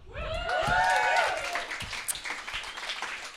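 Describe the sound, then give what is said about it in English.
A brief burst of applause, scattered claps spread across a few seconds, starting under a rising and falling vocal whoop or cheer that fades out after about a second. “You can applaud.”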